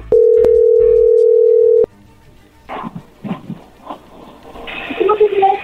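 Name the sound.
telephone dialing tone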